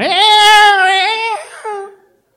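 A baby wails loudly in one long, strained cry that breaks off, followed by a shorter, fading second wail. No one is talking.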